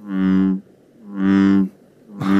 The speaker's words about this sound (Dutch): Dit is, dit is ook een kikker, hè? Dat is een brulkikker. Dat is de brulkikker. En dat is eigenlijk het, het, het geluid van, van zijn onderkaak, die, die, het, het, inademen.